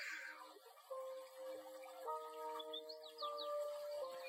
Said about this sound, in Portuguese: Ao seu redor, esses sons lindos. pássaros cantando, os sons da água.